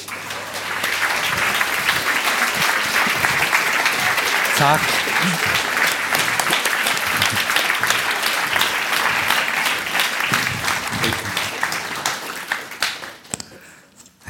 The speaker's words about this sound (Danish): Her er det full, fullt hus og stormende jubel, som vi sier på, på godt norsk.